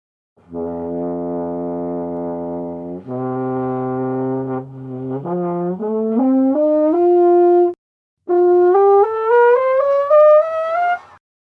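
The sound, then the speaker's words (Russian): A French horn climbs its harmonic series from the lowest available tone. It starts on long, low sustained notes and steps steadily upward, then after a brief break rises in smaller, quicker, near-chromatic steps into the high register. The hand only holds the instrument. No voices. “Ну вот покажите нам, пожалуйста, как э, получаются те звуки, которые, те тона, которые может взять инструмент, начиная с нижнего.”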